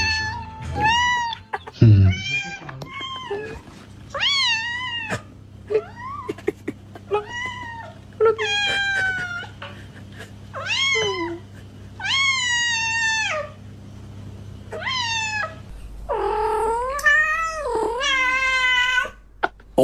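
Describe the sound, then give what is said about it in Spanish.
Male and female cats in heat caterwauling, a long series of loud, drawn-out wailing yowls with rising and falling pitch, one after another, ending in a more frantic, overlapping cry near the end. No talking. “No, registro de solamente gatos y gatas en celo.”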